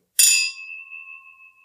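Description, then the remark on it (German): Two drinking glasses clink together once as a sherry-nosed spirit is about to be tasted, a bright chime that rings on with a clear sustained tone, slowly fading over a second and a half with no voices. “Die Gläser klingen auf jeden Fall gut.”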